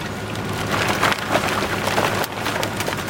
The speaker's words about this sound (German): Ein Laster mit Sperrmüll schiebt seine Ladung aus seinem Inneren heraus. Da kommen gepresste Türen, Bettgestelle, Fensterrahmen, Schränke und Stühle raus.